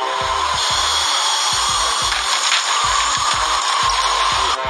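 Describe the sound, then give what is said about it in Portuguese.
A steady, dense rattling and rustling like a flimsy straw house being blown apart, with a series of irregular low thumps throughout, fairly loud, with no one speaking. “Então o lobo bufou e soprou explodiu a casa.”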